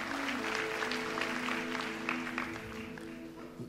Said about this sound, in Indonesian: Yang mau berikan tepuk tangan bagi nama Tuhan.